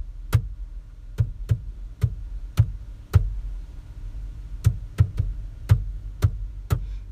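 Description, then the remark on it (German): About a dozen sharp knocks tapping out the rhythm of Happy Birthday to You, with a brief pause midway. The crisp raps play alone over a low background hum, with no talking. “Weil wenn ich jetzt zum Beispiel Happy Birthday to you zu dir klopfe, würde es sie vielleicht so anhören.”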